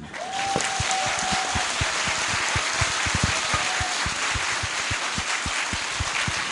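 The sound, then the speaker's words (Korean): A crowd at the EJ talk concert in Cheongju breaks into steady applause for Professor Pyo Chang-won, many hands clapping at once in a dense, crackling wash that holds at an even loudness throughout, with sharper individual claps standing out. “그런 박... 의미에서 표창원 교수에게 뺑뺑이 잘 돌라고 박수 한번.”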